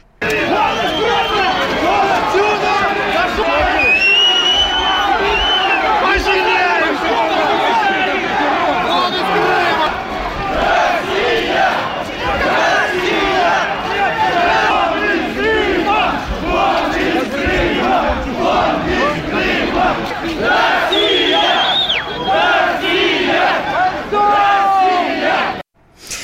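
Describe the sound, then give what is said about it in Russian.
A large, angry crowd outside the Supreme Council building in Simferopol, Crimea, shouts "Get out of Crimea" at Petro Poroshenko, many voices overlapping in a loud, dense roar with bursts of louder cries throughout, sustained for the whole stretch. “Для этого он прилетел в Симферополь и пришел к зданию Верховного Совета, где его встретила разъяренная толпа.”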